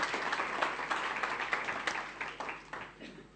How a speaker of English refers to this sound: and we're going to give you a big round of applause. Let's welcome our guests.